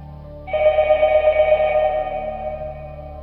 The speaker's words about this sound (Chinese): 突然电话铃又他妈响了， 嗯 这时候只响了一下，然后我还是竖着耳朵听，看是有没有后边的声音啊。没有，就响着这一声，还是死一样的寂静。